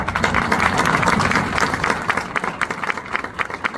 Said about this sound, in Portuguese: ao lado de vocês, homens e mulheres do nosso agro, a quem aqui eu dedico e peço uma salva de palmas.